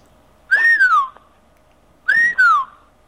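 Two loud, ringing whistled calls of a screaming piha, each swooping up and then sliding down, separated by a short pause, clear against a quiet background.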